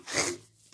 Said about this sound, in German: Achu. Gesundheit. Er hat gerade Achu gesagt. Gesundheit.